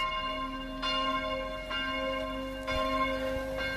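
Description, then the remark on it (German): Church bells ring the midday chime, heard at the upper station by the Seiser Alm, with steady sustained tolling and fresh strikes roughly every second, the ringing tones lingering and overlapping. “Oh, bimmelt noch weiter. Weiß nicht, ob ihr die Glocken auch noch hört.”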